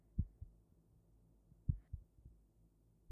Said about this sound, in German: Es war so leer, dass ich das Klopfen meines eigenen Herzens hören konnte.